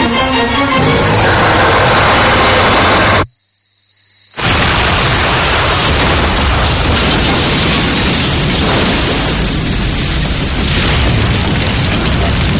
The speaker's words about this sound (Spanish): La iglesia estalla y empieza a arder.